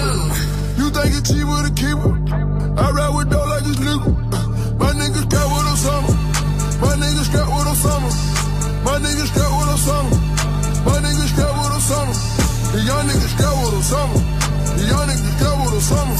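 A new hip-hop track plays loudly and steadily on the radio station Move, with deep booming bass notes in a repeating pattern under bending, melodic sung or rapped vocal lines and busy high-end percussion.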